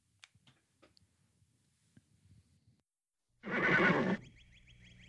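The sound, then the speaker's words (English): After a few seconds of faint scattered clicks, a loud horse whinny bursts out for nearly a second at the start of a theme song, then gives way to sustained musical tones. “I fucking used to go ape shit when I heard this theme.”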